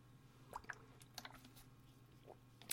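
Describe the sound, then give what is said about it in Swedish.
Quiet sipping of water from a glass: a few soft wet slurps and small mouth clicks scattered over a couple of seconds, followed by a faint gulp, with no one talking. “Jag dricker vatten om ni undrar”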